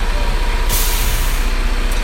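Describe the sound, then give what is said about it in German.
A white cement mixer truck rumbles in Berlin, a city full of construction sites, its deep engine drone steady throughout, broken by a sudden hiss of air brakes releasing partway through; no one speaks. “Ja, aber es ist ein sehr schöner äh, weißer Zementmischer.”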